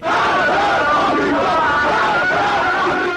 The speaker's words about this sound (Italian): La folla era già davanti all'ambasciata e urlava Marg ba Amrica, Morte all'America.